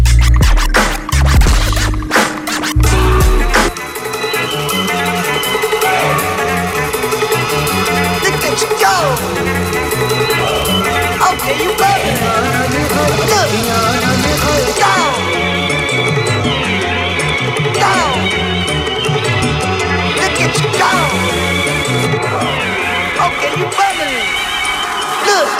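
A hip-hop track plays loudly and continuously, driven by a heavy, repeating bass beat with layered synth and a vocal running through it, after a brief scratchy intro.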